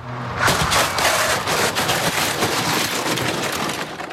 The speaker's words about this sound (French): Une voiture vient de percuter un scooter à 50 km heure. Le mannequin est au sol.